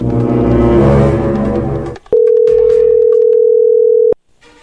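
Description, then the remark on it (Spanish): A steady, mid-pitched telephone connecting tone sounds loud and unbroken for about two seconds, then cuts off abruptly. It follows a dense burst of rich, humming noise at the start. “Perfecto, bueno, ahí entró la llamada.”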